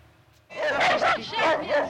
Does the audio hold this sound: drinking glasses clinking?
no